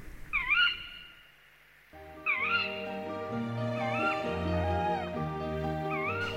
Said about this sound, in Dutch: Gaat dat nou de hele nacht zo door? nou, ik weet niet of de hele nacht zo doorgaat, maar ze kunnen soms best een hele tijd blijven roepen. Ja. Bosuilen. De bekendste uil en de meest voorkomende uil van Nederland.